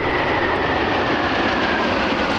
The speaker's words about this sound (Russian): Этот неприметный самолет поразил и профессионалов, и любителей. Блэрио – французская модель, разработанная более ста лет назад.